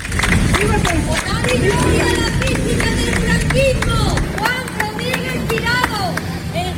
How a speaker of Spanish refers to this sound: Pasadas las 2 de la madrugada se produjo el traslado, mientras a las puertas del templo, como han escuchado, se produjeron gritos a favor y en contra del general franquista por parte de quienes querían ser testigos de este momento